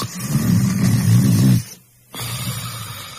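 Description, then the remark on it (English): A loud snore from a person sleeping soundly at night rattles low and rough for about a second and a half, breaks off into brief silence, then a second snore starts up just as heavily. “This is the sound of one of our customers sleeping soundly at night.”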